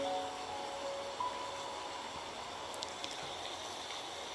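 Steady, hissing rain fills the whole stretch at low volume, with the faint hum of passing vehicles early on and a few light ticks and splashes. No one speaks.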